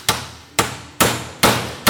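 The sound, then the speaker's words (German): A device being smashed open by force: five loud, sharp blows at a steady pace, about two per second, each a bright crack with a short ringing decay, no voices. “Wir haben keinen Schraubenzieher, darum muss ich zerbrechen.”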